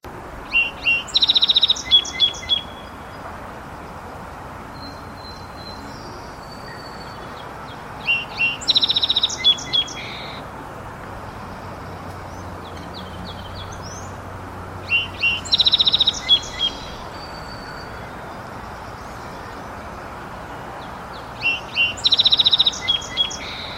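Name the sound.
song sparrow song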